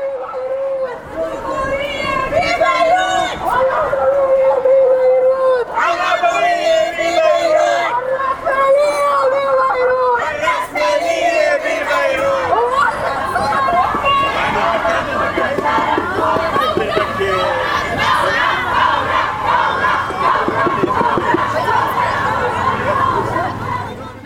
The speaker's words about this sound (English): chant at the end roughly translated means revolt or rebel. You might recognize it from TV clips of multiple marches in multiple countries throughout the Arab Spring from 2011.